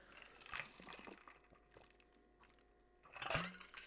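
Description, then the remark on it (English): Someone sips water, with two brief slurping gulps separated by a few seconds of quiet, wet and soft but distinct. “I will be taking water breaks because I still have a Loki headache.”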